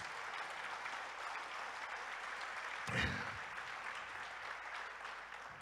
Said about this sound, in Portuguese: Você pode dar um aplauso a Jesus?